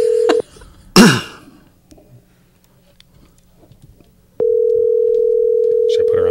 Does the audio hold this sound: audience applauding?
no